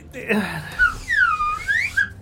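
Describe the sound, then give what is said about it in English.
A slide whistle blown fairly loud, its pure tone swooping downward and then gliding back up in one smooth arc, with a few short chirps at either end. “Wow, you what? actually have a what the fuck? slide whistle.”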